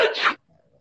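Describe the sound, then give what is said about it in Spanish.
A single sharp sneeze bursts out loudly and cuts off after about a third of a second, followed by a faint, quiet murmur. “Salud.”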